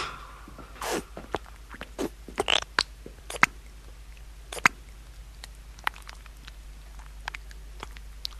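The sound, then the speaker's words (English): Wet squelching as a big dollop of hair gel is squished between two hands, with irregular sticky pops, gulpy squishes and brief suction-like smacks, no voices. “So we had a big dollop of that in our hands and squished our hands together, and you get kind of like a farty, gulpy, squelchy thing going on.”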